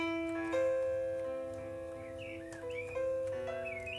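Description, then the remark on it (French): Small garden birds chirp and twitter in short, rising calls over steady piano music that plays throughout, the birdsong fairly faint and scattered rather than continuous. “On a les oiseaux du jardin de la d'accueil, c'est trop beau.”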